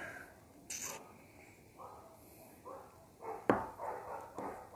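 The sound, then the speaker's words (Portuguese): A pack of dogs that bark every day bark repeatedly in an irregular series of short yaps. A sharper, louder bark stands out near the end. No one speaks. “Cara, essa cachorrada é muito chata, velho. Todo dia um tiro latindo, cara.”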